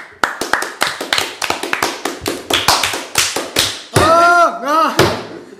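A few pairs of hands clap in quick, uneven bursts for several seconds, fairly loud, as applause for a special guest on the Radio Belf show Coranibus, then a short whooping, cheer-like voice rises and falls at the end.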